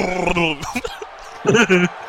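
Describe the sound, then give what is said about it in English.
A man's voice imitates a dog barking, with a few loud, rough, drawn-out woofs separated by short pauses: wrestler Titus O'Neil doing his dog bark during a wrestling match. “Oh, dude, he did the dog bark.”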